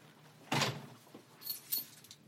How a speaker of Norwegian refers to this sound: Her fisket du frem en nøkkel.